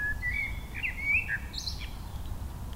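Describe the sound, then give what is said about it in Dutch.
Several birds chirp and sing in quick, overlapping whistled phrases outdoors in a garden, over a steady low rumble of background noise. “Een fluitconcert in de tuin”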